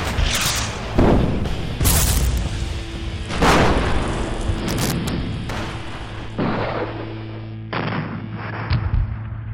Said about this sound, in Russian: Японские корабли открыли огонь по русским сразу на поражение. Началась сильнейшая артиллерийская канонада. Японцы и русские довели свой огонь до предела.